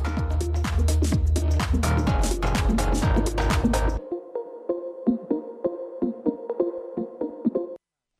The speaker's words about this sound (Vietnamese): Quý vị vừa lắng nghe ca khúc … qua sự thể hiện của ca sĩ …